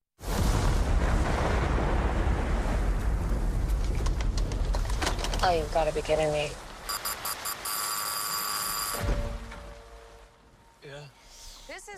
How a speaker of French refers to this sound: Le dernier film dont on parle ce soir, c'est Barbare de Zach Krieger. On écoute la bande-annonce.